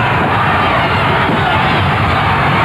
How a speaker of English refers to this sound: The crowd going crazy as Terry is first up.